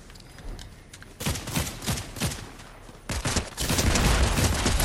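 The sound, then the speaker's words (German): Rapid bursts of video game gunfire crackle in quick succession, with sharp repeated shots in clusters that swell into a loud, sustained volley near the end. “Muss ich hier wieder Headshots geben oder was?”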